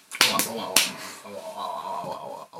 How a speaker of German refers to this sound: Ich verteile jetzt hier Ohrfeigen.